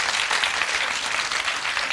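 Steady applause from a crowd, a dense continuous wash of many hands clapping at an even, fairly loud level with no pauses and no voices.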